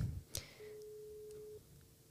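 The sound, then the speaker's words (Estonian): A single telephone ringback tone of an outgoing call to someone in Kyiv, one steady pitched beep lasting about a second, preceded by a soft click on the line, heard alone over a quiet, slightly hissy connection. “paneme äh, telefoni kutsuma ja vaatame, kas ta ka vastab.”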